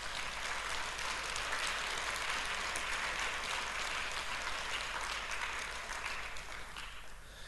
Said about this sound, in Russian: Дайте Господу огромное аплодисмент.